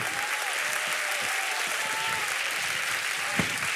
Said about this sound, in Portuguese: Aplauda mesmo ao Senhor com toda a tua força, porque Ele é Deus vivo.